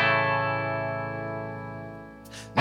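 A rock song intro opens with a loud, distorted electric guitar chord ringing out and slowly fading, then a sudden crash of drums bursts in at the very end.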